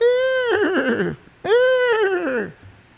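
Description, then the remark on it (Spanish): Two loud horse neighs in a row, each a high, quavering whinny about a second long that slides downward in pitch, with a brief pause between them and no talking. “Y eso merece un de regalo un caballito relinchón”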